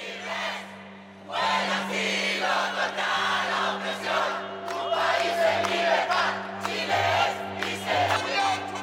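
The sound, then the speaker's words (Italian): A large crowd of Chileans roars and cheers continuously on the day a proposed new constitution was rejected, a dense wall of shouting voices swelling in waves after a quieter first second, with a steady low hum underneath. “Quelli che state sentendo adesso sono i cileni il giorno in cui è stata respinta la proposta di Costituzione”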